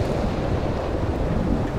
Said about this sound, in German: Langsam wurde es windiger und über den Bergen formierten sich immer mehr finstere Wolken und man sah einen dunklen Regenschleier.